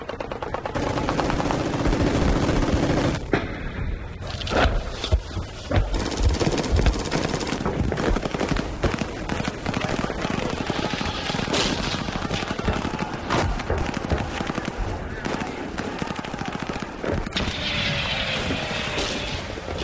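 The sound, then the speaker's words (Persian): Dense, continuous gunfire fills the whole stretch, rapid bursts of machine-gun fire cracking over heavy booming mortar blasts, loud and chaotic with no pauses. “حجوم حادثه بود و چکاندن ماشه صدای قررش خمپاره و مسلسل بود”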